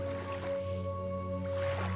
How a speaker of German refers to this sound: Doch wir hören nichts von der Innenstadt. Wir hören keinen Lärm, keine Geräusche, sondern wir hören nur das Wellenrauschen. Es sind keine großen Wellen, denn wir sind hier nicht auf dem offenen Meer.